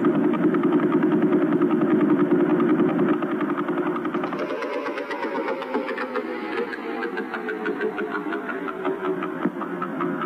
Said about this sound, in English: Um, and then we had the Vela Pulsar. You remember the Vela Pulsar, right? So that's that guy. But that's a little too fast for what we're trying to do, so we're going to slow that down, okay?